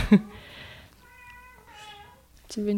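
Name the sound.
cat meowing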